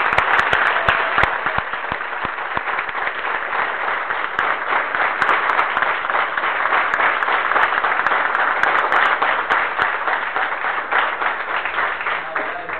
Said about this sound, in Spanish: Hoy quiero destacar que acá hubo muchísimos directores de orquesta, en cada mesa hubo dos, les quiero pedir un fuerte aplauso para cada uno de ellos.